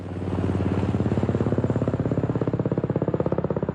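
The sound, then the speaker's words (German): A helicopter flying from a mountaineering base camp, its rotor chopping steadily in a loud rhythmic thudding over a deep engine drone that speeds up slightly as it goes, with no voices. “Es sind Tage, in denen es ungewöhnlich viele Hubschrauberflüge vom Basislager gibt, berichten Bergsteiger in sozialen Medien.”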